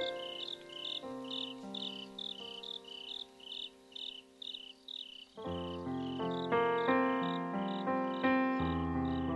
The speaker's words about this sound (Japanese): やがて雨は上がり虫の声が聞こえ始めた